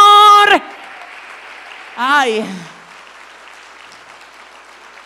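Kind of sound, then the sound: crowd, audience applause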